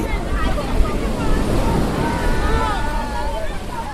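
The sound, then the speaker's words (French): Rough ocean surf roars steadily as waves break on a sandy beach on Valentine's Day, where couples sit watching and some swim, mixed with wind rumble, while faint voices murmur in the background. “L'océan, comme animé par la fougue amoureuse, est elle aussi plus agitée.”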